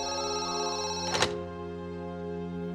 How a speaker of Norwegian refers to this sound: Han er på kontoret i DC, og hun er ute og kjøper juletre sammen med de tre barna de har fått. Og mens han er på kontoret sitt, så ringer plutselig telefonen.